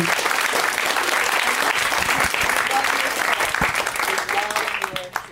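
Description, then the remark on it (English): A large audience at a show claps for a family steadily for several seconds, a dense, loud wash of hands with scattered cheers mixed in, thinning slightly as it tapers off at the end. “Let's hear it for this fabulous family.”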